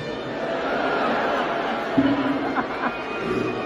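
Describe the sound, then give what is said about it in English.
A large crowd boos steadily, a dense wall of voices that holds at an even level throughout, with a few louder individual shouts rising briefly near the end. “Booing is not the best thing you can do.”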